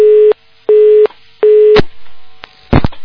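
A telephone busy signal after a phone call was cut off: three steady mid-pitched beeps with even gaps, followed by a few clicks and brief crackles of line noise. No one speaks.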